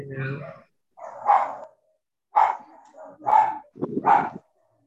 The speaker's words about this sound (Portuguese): alguém que está com uma é, um cachorro aí de fundo